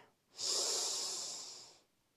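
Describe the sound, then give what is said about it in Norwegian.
A long, deep breath drawn in through the nose during a guided breathing exercise, a steady airy hiss lasting about a second and a half, clear, with no talking. “Pust godt inn med nesa.”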